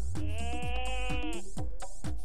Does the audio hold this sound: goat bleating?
yes